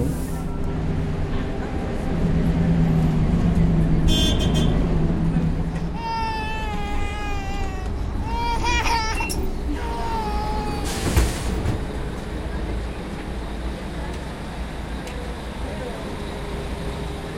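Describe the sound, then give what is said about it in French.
Steady roar of busy city traffic fills a street in Mexico City, with a few short horn-like blasts and wavering tones rising above the constant rumble midway through. “Mexico, comme Tokyo et comme toutes les mégalopoles du monde, offre par son réseau de métro, de métrobus, par ses taxis verts ou rouges, des possibilités de maîtrise de l'espace.”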